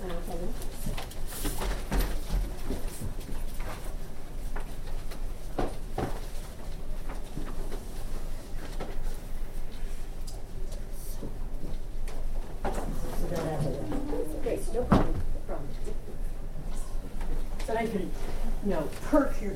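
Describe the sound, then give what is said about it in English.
Chairs are dragged and turned around to face panelists in a busy room, with scattered scrapes, knocks and a few squeaky slides over a steady murmur of people talking in the background. “We could turn some of these yeah, chairs around. Turn some of the chairs around.”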